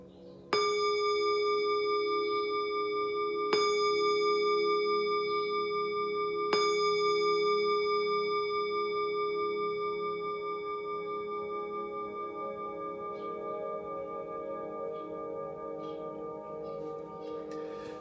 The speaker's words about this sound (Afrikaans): En wanneer die klokke lui, kan jy stadig jou oë oopmaak.